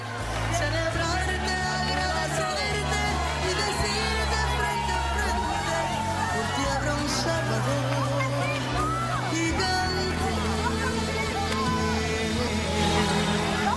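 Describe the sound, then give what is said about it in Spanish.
A crowd of fans screaming nonstop for Don Francisco at his farewell, a loud, dense wash of high-pitched shrieks and yells that holds steady for the whole stretch, with a low, sustained backing underneath. “En esta ocasión los gritos se oyen.”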